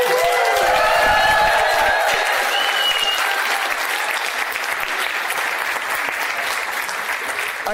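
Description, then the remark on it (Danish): A large live audience at the live stage of Naturmødet in Hirtshals, during a live broadcast of Vildspor, breaks into sustained applause with cheering and whoops, a dense wash of clapping that stays loud throughout, with a few high shouts rising early on. “Hvis I ikke tror på mig, så kan I ikke lige sige noget af publikum.”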